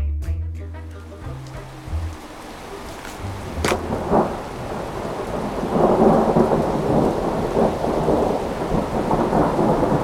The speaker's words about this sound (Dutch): Het is halverwege mei 1816 is dus gevorderde lente, maar dat is nergens aan te merken. Het blijft maar koud. Het regent onophoudelijk, vaak onweert het. Hevig.